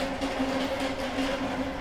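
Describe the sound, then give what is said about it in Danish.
A pallet truck rolls past with a steady, grinding rumble and a faint sustained whine running underneath, continuous and fairly loud throughout, with no voices. “Kommer der lige en palleløft?”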